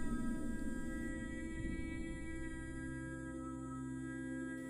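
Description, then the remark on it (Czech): A long, steady sung tone held unbroken for several seconds, rich in ringing overtones, like throat or overtone singing. It is fairly loud, with no talking. “A v tom ze sebe vydám dlouhý, alikvotní zvuk”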